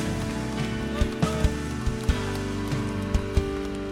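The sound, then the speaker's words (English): A church audience at Stevens Creek Church claps together over steady worship music, a dense patter of hands punctuated by sharper, louder claps that land in a loose rhythm. “Come on, let's clap our hands, lift up our voices.”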